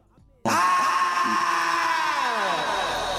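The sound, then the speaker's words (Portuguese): A man in a played track lets out a sudden, loud, sustained scream that starts abruptly after a brief quiet moment and holds steady at high intensity for several seconds, strained and raw. “O gajo a gritar, o gajo a gritar pelo assim”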